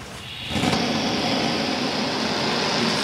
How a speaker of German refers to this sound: Nun nimmt sich der Kantor das Geschirr von Gemeindemitgliedern der israelitischen Gemeinde Basel vor. Hier ist ein Brenner.